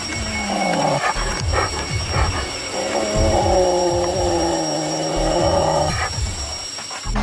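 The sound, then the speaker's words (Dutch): A Malayan sun bear at a zoo in Hangzhou, China, vocalizes with loud, sustained whining and squealing calls that rise and fall in pitch, running almost continuously against a steady background hum. “Is dit een Maleise beer of is dit een mens die een Maleise beer nadoet?”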